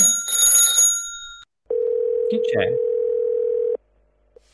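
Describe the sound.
A loud telephone rings for about a second and a half, then after a short gap a steady dial tone drones for two seconds while a voice briefly speaks over it.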